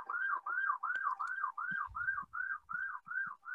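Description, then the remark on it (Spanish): An ambulance or police siren in Colombia wails in a fast, steady up-and-down cycle, about ten repeats, loud, with faint low traffic rumble beneath and no talking. “Bueno, para que las, para que nuestra audiencia vea que cómo está la situación en Colombia. A cada rato ambulancias y policías.”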